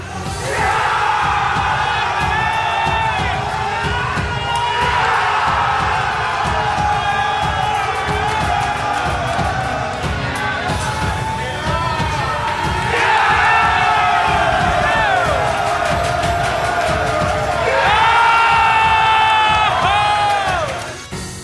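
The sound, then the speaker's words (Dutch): A packed pub of football fans watching Ajax play Willem II roars and chants in loud, continuous waves, with rising surges of cheering every few seconds and voices shouting together. “Want net in de kroeg hier ging het in ieder geval los. En dat klonk zo.”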